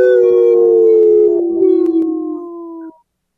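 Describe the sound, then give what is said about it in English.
A single long wolf howl, loud, holding a steady tone that slowly slides lower in pitch for about three seconds before cutting off into silence. “Thanks so much for howling.”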